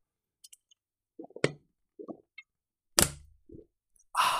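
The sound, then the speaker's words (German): Someone takes a sip of a drink, deliberately made audible: faint wet lip clicks, a few soft gulping swallows, a sharper plop, then a breathy exhale at the end. There is no talking. “wenn ich trinke, dann versuche ich das immer für euch so hörbar zu machen, damit euch nicht langweilig wird beim Hören.”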